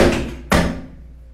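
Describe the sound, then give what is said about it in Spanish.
A single heavy door to a shared common hallway bangs shut, one sharp loud thud that rings out and fades with a hollow echo, preceded by a dull background rumble. “Esa es la puerta de la... o sea, el pasillo común, ¿no?”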